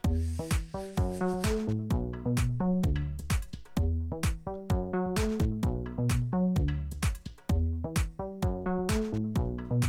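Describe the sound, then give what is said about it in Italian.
A short, upbeat instrumental music loop from track 5 of an old CD compilation plays loud and continuous, with a steady punchy drum beat, a bouncing bass line and bright melodic notes repeating in a tight rhythmic pattern. “Abbiamo ripescato una vecchissima compilazione compilation eh, dalla nostra libreria e abbiamo scoperto che alla traccia numero 5 c'è cioè questo giretto bello bello che fa così.”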